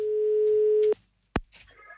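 A steady single-pitch telephone ringback tone holds for almost a second, stops, and after a short silence a sharp click sounds, followed by faint line noise and a brief higher tone, as an assistant from the radio show Äntligen morgon calls a listener who signed up.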